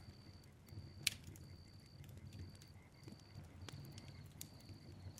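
A campfire crackles quietly with irregular sharp pops and snaps over a low, steady rumble, along with a faint, intermittent high whine. No one speaks.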